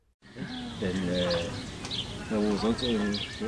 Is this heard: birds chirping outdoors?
yes